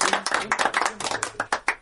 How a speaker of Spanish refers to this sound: Con este aplauso, por favor. Bienvenidos.